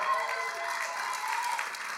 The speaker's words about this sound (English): Give Whitney a round of applause.